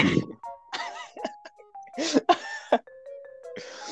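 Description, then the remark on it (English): A loud, explosive sneeze bursts out amid several sharp breathy gasps and throat sounds, with a faint steady electronic tone humming underneath. “that was the loudest sneeze I've ever done in my life.”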